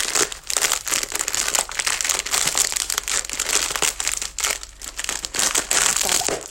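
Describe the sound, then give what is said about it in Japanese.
Loud, continuous crunching and crinkling as butter cookies are crushed into crumbs while cooking, with dense irregular bursts throughout and no pause. “まずはですねバタークッキーがあるのでバタークッキーを粉々に砕きその傍らバターを溶かしていきたいと思いますはいというわけで大吉の缶もビスケットを粉々に砕く音がね音がだいぶでかいので。”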